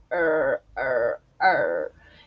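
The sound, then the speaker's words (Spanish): The pet dog Dante growls at a little bird while looking through a window, in three drawn-out, moaning bursts of about half a second each, separated by short pauses. Fairly loud, with no talking over it. “y ahí les hablo sobre mi perrito Dante, él está acá y no, no lo voy a mover, está viendo por la ventana y le está gruñendo un pajarito.”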